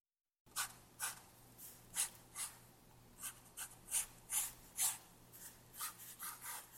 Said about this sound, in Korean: 소녀에게 종이 한 장과 연필을 건네준다. 소녀는 쓰고 그리기 시작한다.